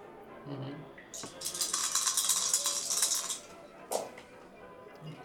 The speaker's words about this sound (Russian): Три успеха с сложностью 2. То есть я перебрасываю три куба.